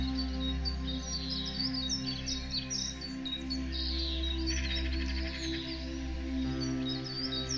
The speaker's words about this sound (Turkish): Kuşların ve cırcır böceklerinin seslerini duyuyorsun.